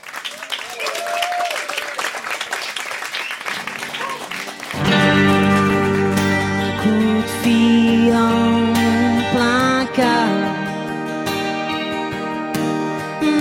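A live audience claps steadily for about five seconds, a dense crackling wash of applause, before band music with sustained tones takes over and carries on loudly to the end.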